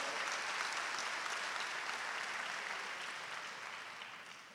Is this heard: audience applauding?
yes